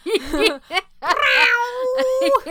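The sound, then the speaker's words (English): A person vocally imitates a cat in heat yowling, with short wavering cries leading into one long, drawn-out, rising-and-falling wail, loud. “yowling again.”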